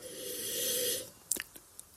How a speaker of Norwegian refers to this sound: Eh, det er ofte litt sånn komplisert i og med at dere sitter og lytter, og dere hører meg snufse litt og lukte litt, men når man lukter på den, så kommer det en litt sånn sødmefull lukt på den.